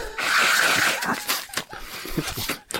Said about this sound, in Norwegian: Eller kunne vi ikke avslutte med at du snøyt? Det Kan vi godt, Nå tar jeg av litt papir her.